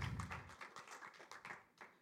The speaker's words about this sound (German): Lass uns meiner wunderbaren Frau einen kurzen Applaus geben.